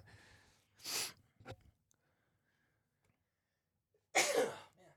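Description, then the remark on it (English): Two loud, sharp sneezes, separated by a few seconds of near silence, the first preceded by a brief breathy inhale and followed by a small sniff. “I sneeze.”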